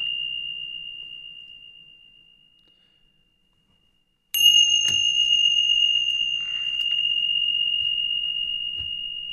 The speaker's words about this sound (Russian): Начнем с колокольчиков буддийских. Как они называются-то, кстати? Тинча.